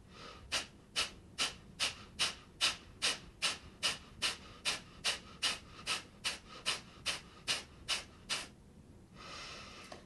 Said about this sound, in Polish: teraz zaczynamy. Wykonaj 20 szybkich oddechów, przyciskając mocno pępek do kręgosłupa.